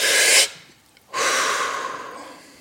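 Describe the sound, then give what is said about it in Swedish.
Two deep, forceful breaths of controlled hyperventilation, breathing from the belly up to the head: a sharp rushing inhale, a brief pause, then a long, steady exhale that slowly fades. No talking. “Så man andas från från magen och sen eh, så har man en kontrollerad hyperventilation så att man eh, gör ungefär 30 djupa andetag ifrån, ifrån magen upp till huvudet så att man um, ja”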